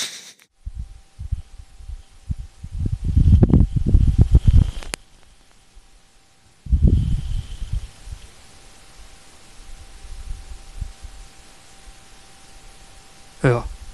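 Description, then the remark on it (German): Soft, low wind from a Martian dust devil buffets a microphone in two gusts, a longer rumbling one early and a shorter one midway, with faint hiss and near-quiet between them. “Das klingt halt eher nach lauem Lüftchen.”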